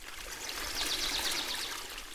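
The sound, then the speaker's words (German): A small stream trickles steadily, a soft continuous splash and babble of running water, with no voices, the flow rising slightly in the middle before settling. “Neben einem kleinen Bach traf er ein Mobiltelefon.”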